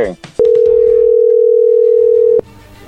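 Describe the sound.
A telephone ringback tone on an outgoing prank call: one steady, mid-pitched electronic tone held for about two seconds, loud and continuous, with brief bits of voice before and after it.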